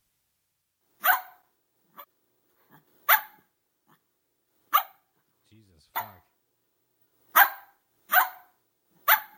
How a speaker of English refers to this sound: I do have a skill you might like. It's called Bark Like a Dog. Wanna try it? Sure. Okay, here's bark like a dog.